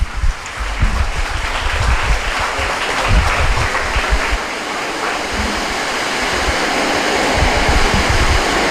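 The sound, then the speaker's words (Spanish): A crowd applauds a priest steadily and loudly for several seconds, a dense wash of many hands clapping at once with no voices standing out over it. “Un aplauso nuevamente al Padre.”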